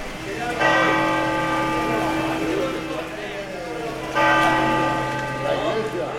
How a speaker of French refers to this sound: Et les cloches sonnent à la cathédrale de Santiago pour l'arrivée de Sofia.